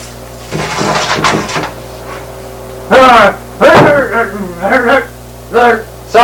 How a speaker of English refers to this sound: I have the key, sir. Now, unlock the cell door. Okay, let me unlock the cell door, sir